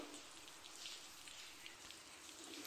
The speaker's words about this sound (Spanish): Y encima llueve, ¿no? Es un, total día de encierro.